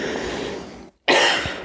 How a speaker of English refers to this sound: bless you again. It's a cough, but still want to bless them, you know?